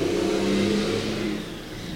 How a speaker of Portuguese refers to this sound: É, é uma cegonha, um né? caminhão cegonha passando aí. O pior é que passa.